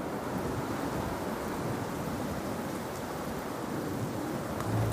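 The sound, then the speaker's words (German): A dense, steady roar of stormy sea around a ship leaning onto its side fills the whole stretch, broad and unbroken like heavy surf and wind churning together, with no voices over it. “Die See ist stürmisch, wenn das Schiff sich weiter neigt, dann wird es leckschlagen.”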